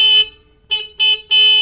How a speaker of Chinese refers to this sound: 这时候，波兹忽然想到一个可以通知农夫跑过来的办法。小猪波兹沁响了拖拉机的喇叭